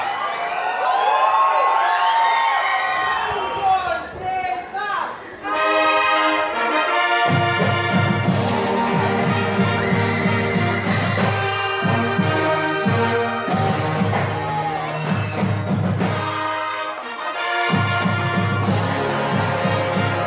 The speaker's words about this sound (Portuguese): Ordem de apresentação em aberto e em julgamento, diretamente da capital paulista, a banda marcial Armando Arruda Pereira.